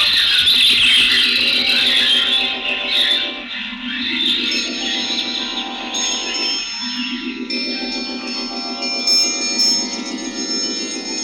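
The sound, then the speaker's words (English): Hundreds of thousands of birds hover, shriek and beat their wings in the forum as Caesar proclaims himself a god, a dense, continuous high-pitched din with repeated swooping tones and an echoing, ringing quality throughout; no one speaks. “And they hovered, and they shrieked, and they beat their wings, and Caesar could not make himself heard.”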